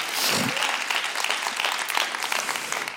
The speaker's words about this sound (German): lass uns diesem Herrn heute einen Applaus geben, live und online in der Haus.